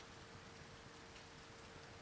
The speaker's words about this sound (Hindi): बारिश हल्की हो गई थी